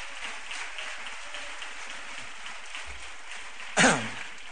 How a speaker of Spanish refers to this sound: Ellos serán el coro flamenco del Pilar, popularmente conocido, y entre ellos el coro grande. Un aplauso para ellos. Venga, sí.